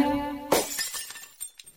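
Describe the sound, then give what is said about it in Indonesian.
A flower vase in a house is accidentally broken, shattering with a sharp crash, followed by scattered tinkling fragments settling for a moment afterward; no one speaks. “Ya Tuhan, pas bungaku pecah.”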